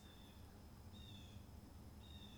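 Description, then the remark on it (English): A bird chirps faintly in a backyard: three thin, high-pitched calls spaced about a second apart over a low, steady background rumble. “and that bird is chirping in the backyard”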